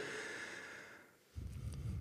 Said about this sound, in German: Bevor ich sie dir verrate, gehen wir kurz in unsere Einstiegsübung rein, schnaufen kurz einen Moment durch